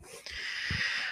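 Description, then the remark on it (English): A yoga mat creaks and rubs under shifting feet in a bunker: a steady, hissy friction sound lasting about a second, with a couple of soft, low thuds partway through. “That's the sound of my yoga mat under my feet.”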